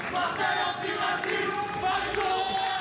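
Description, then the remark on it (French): A crowd booing and jeering at French presidential candidate Zemmour during a brief walkabout, a sustained loud wash of many overlapping voices with drawn-out tones rising and falling throughout, no single speaker standing out. “La déambulation sera express et sous les huées”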